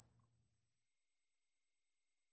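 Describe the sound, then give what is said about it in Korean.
A steady, high-pitched ringing tone holds unbroken at one pitch throughout, like tinnitus, with only a faint low rumble at the very start before it continues alone. “쉬지 않고 이어지는 이명은 외계의 신호인 양 더욱 선명했다.”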